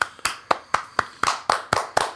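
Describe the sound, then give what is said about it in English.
Eight sharp hand claps in a steady, fairly quick rhythm, each crisp, with no voices in between. “I hope you're clapping at home.”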